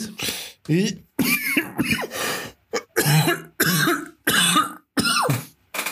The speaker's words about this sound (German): Nee, Hust, Hust. Entschuldigung.